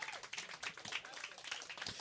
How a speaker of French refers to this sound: Peut-être qu'on peut l'applaudir.